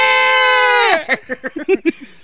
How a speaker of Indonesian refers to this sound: ribut kan ribut kambingnya